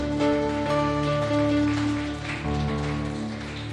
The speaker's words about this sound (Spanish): ¿Le parece que le demos un fuerte aplauso a nuestro Dios?